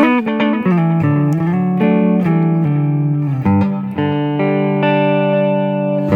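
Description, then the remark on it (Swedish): A loud, sustained instrument plays a run of notes through a delay effect that is itself delayed, each note smeared into a dense wash of diffused echo reflections so the tones blur and overlap continuously, with no voices present. “Och det som händer nu då, när man gör på det här sättet, man får de här många studsarna, är att man diffuserar, man, man smetar ut ljudet.”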